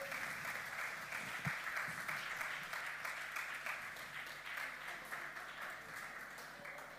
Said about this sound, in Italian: Quindi vogliamo accogliere questa sera Babbo Natale Gesù, lo accogliamo con un applauso.